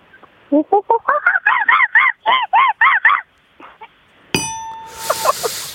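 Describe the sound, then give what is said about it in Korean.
A woman imitates an orangutan call with a rapid series of about a dozen loud, hooting cries that climb in pitch and intensity, then a bright bell-like ding rings out. “여, 여성분이 네. 하는 오랑우탕 한번 들어볼게요.”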